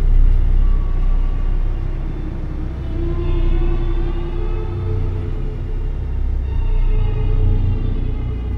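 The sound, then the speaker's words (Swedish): A steady low engine drone fills the interior of a moving bus whose next stop is Copenhagen Airport, terminal 3, with the motor's pitch rising and easing as it accelerates and shifts. It stays loud and constant throughout, with no voices. “Till slut är det bara Christer och kvinnan med den tunga kofferten som är kvar på bussen”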